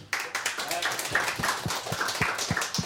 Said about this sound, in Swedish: En applåd.